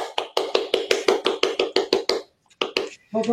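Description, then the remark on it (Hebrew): Brisk, steady hand clapping, about a dozen sharp claps in quick even rhythm, then a brief pause before a few more claps resume. The claps sound bright and fairly loud, with no talking over them. “אז בואו ניתן כפיים לעצמנו”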